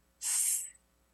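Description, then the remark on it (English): A single drawn-out hissing "sss" from a human voice, imitating a snake to sound out the letter S. It's bright and fairly steady for about half a second, then trails off into quiet. No other talking. “My teacher would put her hands together and she'd be like, like a snake, like a sizzle,”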